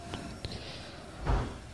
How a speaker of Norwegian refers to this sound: Det kan ha til noe med at det er noen dører som blir smelt på utsida.